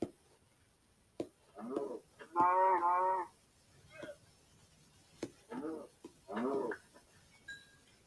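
A cow moos several times in short, nasal calls, the loudest and longest near the middle, with a few sharp thumping clicks between them and no one talking.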